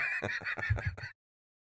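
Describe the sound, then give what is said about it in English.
A horse whinnies in a short, fluttering burst of about a second, its high quavering neigh pulsing several times before cutting off abruptly into silence. “Good news, we found a donor. Bad news, it's a horse.”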